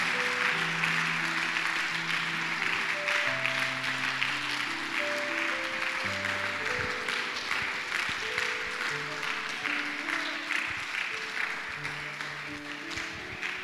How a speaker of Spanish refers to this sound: Dale un aplauso al Señor. A ver, fuertes aplausos.